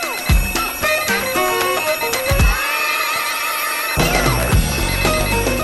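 A loud electronic alarm, used as the wake-up call of an FM radio show's morning-call service, rings out as a bright, bell-like melody of quick repeating notes, with a brief pause midway before the ringing pattern starts again; no one speaks.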